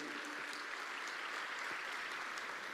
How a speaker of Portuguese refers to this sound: Glória a Deus, né? Aplauda o Senhor Jesus. Ele é digno.